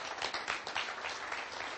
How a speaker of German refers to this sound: Und ähm, genau, deshalb an dieser Stelle, ja, nochmal herzlichen Dank für deine Bereitschaft und du kriegst nochmal einen ganz warmen Applaus.